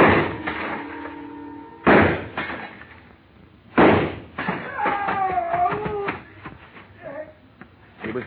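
Three loud, sharp gunshots ring out about two seconds apart in a store, fired at a glass showcase a man is standing on, each followed by a crash and a clatter of breaking glass, with bright ringing shards tinkling down afterward.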